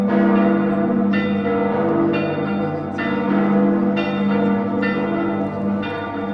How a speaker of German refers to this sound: Dienstag um 21.28 Uhr. Zum Zeitpunkt des ersten Bombenabwurfs vor 79 Jahren wird die Stadt von einem Klangteppich bedeckt. Wer genau hinhört, hört die einzelnen Glocken heraus, insbesondere die Domglocke Husiana.